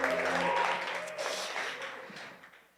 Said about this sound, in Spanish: Si estás emocionado, si puedes aplaudir, está bien.